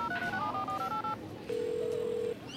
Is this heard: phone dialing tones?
yes